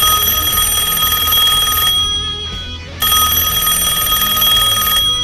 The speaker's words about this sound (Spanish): Vamos a arrancar con cosas como, por ejemplo, la telefonía. El teléfono de línea.